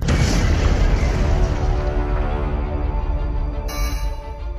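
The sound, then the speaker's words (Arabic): The core of reactor number four at the Chernobyl nuclear plant explodes in a massive blast that smashes the roof and tears a large hole in the building, roaring with a deep, sustained rumble that fills the low end, slowly decaying with crackling debris over several seconds, loud, with no voices. “انفجار هائل تسبب بفجوه كبيره في قلب المبنى بعد تحطيم السقف الحصين هذه حكايه مفاعل تشيرنوبل”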